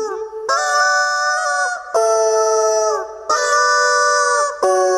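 A rubber chicken squawks out a slow melody from Pachelbel's Canon in D, played by Big Marvel: four long, loud, nasal, buzzy notes stepping between pitches, each held for over a second with brief breaths between, and no talking.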